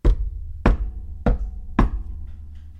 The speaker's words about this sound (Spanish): Un día, un hambriento zorro se preparaba para cazar su cena mientras se limaba las garras lo sorprendió un golpe en la puerta.